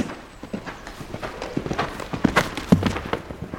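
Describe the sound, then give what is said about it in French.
Horse hooves clip-clop in an irregular stream of hollow knocks, with a soft outdoor rustle running underneath and no talking. “ils vivent en totale liberté, ils s'autogèrent, et de l'autre côté, on a des immenses prés où les chevaux ont accès euh, autant qu'ils veulent, hein, s'ils font leur vie.”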